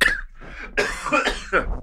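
A close, harsh coughing fit: three rough bursts in quick succession, each a raspy hack with brief gasping pauses between them, loud and up front.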